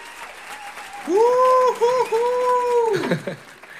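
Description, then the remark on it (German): An audience claps steadily for a few seconds to welcome a guest, with a long, sustained cheer or whoop rising over it in the middle before the applause fades out. “Und dafür haben wir, und jetzt brauche ich gleich nochmal einen, einen Mega-Applaus, jetzt darf ich äh, begrüßen”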